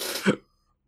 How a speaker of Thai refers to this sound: โอ้ยขออภัยสะอึกด้วยนะครับ